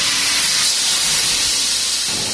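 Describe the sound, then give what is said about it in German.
A steady, soft hiss from an industrial laser cutter cutting metal sheets inside a three-metre-high glass enclosure runs unbroken through the whole stretch, with occasional sparks, no voices and only faint low rumbling beneath. “Er zischt leise, ab und an sprühen Funken durch den Innenraum des drei Meter hohen Glaskastens”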